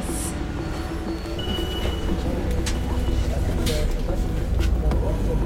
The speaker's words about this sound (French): Ah, cool, le bus de nuit arrive je vais pouvoir aller me coucher bientôt.